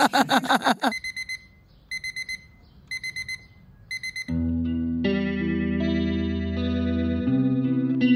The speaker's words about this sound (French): Encore un de ces matins où j'entends pas mon réveil.